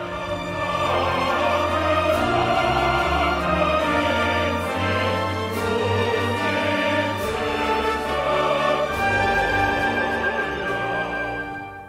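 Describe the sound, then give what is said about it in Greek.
The Metropolitan Opera company chorus sings the Ukrainian national anthem with full orchestral accompaniment, loud and sustained, rich massed voices swelling steadily throughout with no speaking. “Τον ύμνο που τραγούδισε και ο Θίασος της Μετροπόλιταν Όπερα.”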